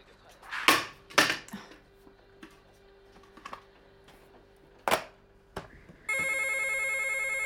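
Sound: telephone ringing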